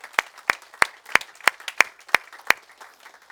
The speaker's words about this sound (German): überall, wo ihr uns verstehen könnt, wo ihr der deutschen Sprache mächtig seid, lasst uns diesen Menschen noch mal einen kraftvollen Applaus geben heute Morgen.